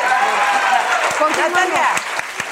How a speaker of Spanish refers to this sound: Gracias, aplaude, comadre. Gracias.